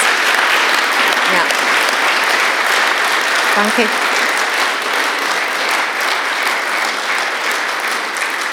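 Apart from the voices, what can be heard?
audience applause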